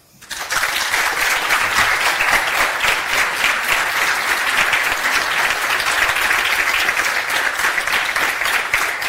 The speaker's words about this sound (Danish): Og jeg gentager lige, for jeg lytter derude, at øh, det her bifald, det, det kommer jo fordi, vi sender live fra, øh, fra scenen her i Hirtshals.